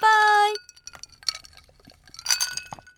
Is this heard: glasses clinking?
yes